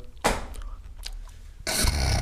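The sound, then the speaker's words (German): Mouth noises, with a sharp smack or crunch, a few softer wet clicks, then a longer burst of noisy chewing or munching. Nobody speaks. “Ja, wir überbrücken ja, ja. die Stille mit äh, Schmatzen.”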